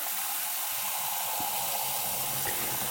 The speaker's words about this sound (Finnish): Sitten mä otan kulhon ja alan valuttaa niin kuumaa vettä kuin hanasta tulee. Ja mä paan tämän siivilän tähän kulhoon.